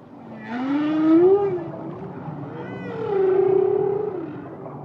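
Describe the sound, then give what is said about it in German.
Whale song: two long, drawn-out moaning calls that swoop up and down in pitch, the second one holding a steady tone before sliding away, heard clearly against a low watery background hum. “Wale können singen.”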